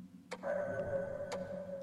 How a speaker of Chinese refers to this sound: 忽然，又有一个声音传来，那是大震的电子表撞击铁板的声音。如果没有人碰它，那手表怎么会自己发出砰砰的声音？